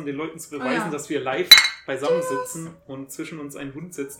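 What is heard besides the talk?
glasses clinking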